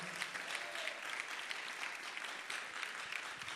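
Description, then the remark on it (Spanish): An audience claps steadily throughout in applause for the victory of the Lord, a dense, continuous wash of many hands with a bright, crackling texture and no pauses or talking. “Alguien aplauda la victoria del Señor.”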